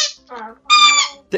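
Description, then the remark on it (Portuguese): A squeaky dog toy gets squeezed in a few quick squeaks, the last one the loudest and longest, with a honking, reedy tone and no voices. “É um brinquedo de cachorro.”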